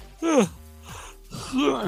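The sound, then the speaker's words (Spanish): A person yawns twice, making drawn-out vocal sounds that each sweep downward in pitch, separated by a quieter pause; moderately loud. “uno no puede ver a nadie bostezando con sueño, porque cuando tú alguien se te pega,”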